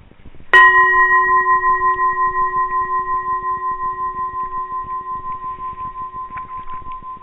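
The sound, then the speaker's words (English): A single bell is struck once, then its clear, steady tone rings on and slowly fades, with a gentle pulsing shimmer through the long sustain. “I've long since left the striker. It's not on the bell anymore. It's just the reverberation.”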